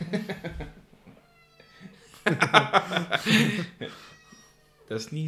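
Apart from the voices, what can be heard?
cat meowing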